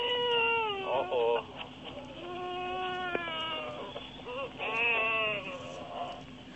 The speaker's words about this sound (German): Hörst du da was? Ja, ein Papagei. Mach mal, der singt.